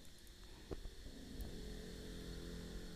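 Scooters passing by drone with a low, steady buzzing rumble that grows slightly fuller toward the end, with a couple of brief knocks early on and no talking.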